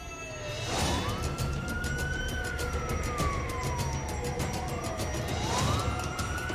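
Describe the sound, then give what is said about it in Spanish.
A police siren wails steadily as several police patrol cars arrive at a house, its pitch sweeping slowly up and down in long glides, loud over a rumbling background of traffic or engine noise. “En minutos varias patrullas se hicieron presentes en el lugar, personal de investigación, ambulancias y peritos forenses.”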